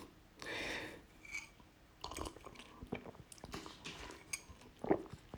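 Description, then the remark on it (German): A male cat named Lecky plays with a toy holding dry food, making irregular rattles, soft crunchy scrapes and sharp little clicks, with a louder rustling burst early on. It's fairly quiet and nobody speaks. “Ja, meine Katze spielt wieder mit dem Trockenfutterteil.”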